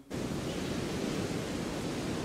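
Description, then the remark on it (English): A steady, unbroken rush of recorded wind noise played from the booth as a sound effect, full and fairly loud. It is heavy in the low and mid range and plays alone, with no voices. “So it's some wind.”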